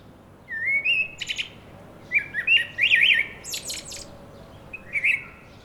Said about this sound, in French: Le chant du plus bel oiseau était si joli, si envoûtant